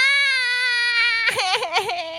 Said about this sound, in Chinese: 嘟嘟试了好多声音，车厢宝宝还是一直哭。 哎呦，怎么办呢？